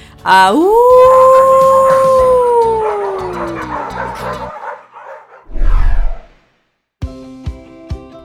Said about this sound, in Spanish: Vámonos y acompáñame con nuestro famoso aullido.